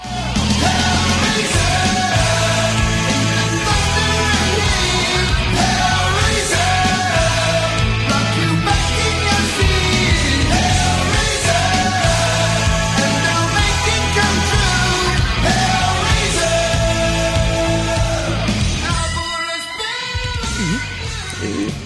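A recorded heavy metal song plays loudly and continuously, dense distorted instruments under a strained, shouting vocal, with a brief drop in intensity near the end before the full band returns.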